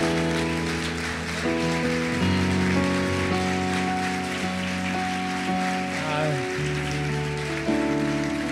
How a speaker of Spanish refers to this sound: Pero ahora yo quisiera que las mujeres se pusieran de pie y le demos un aplauso, como yo no voy a estar el domingo entrante, un aplauso a los padres.